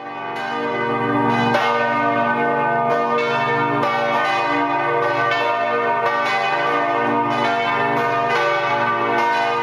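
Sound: church bells ringing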